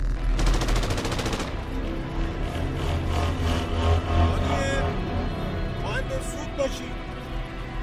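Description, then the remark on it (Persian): Rapid bursts of gunfire crackle through a dense, noisy scene, growing ever heavier around a warehouse, with a fast repeating volley early on and scattered loud shots continuing throughout, layered with voices and commotion. “صدای تیراندازی شدید و شدیدتر میشد ریختن دور انبار”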